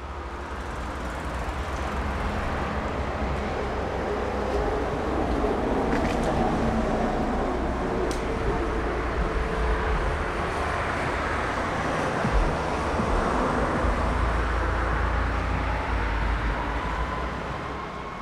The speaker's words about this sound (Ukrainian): І зараз, е, звичайно, не знаю, звуки тролейбусу. Вони зараз такі вже знаєте, парк старий, вони торохтять, гремлять. Але для мене, напевно, звук тролейбуса.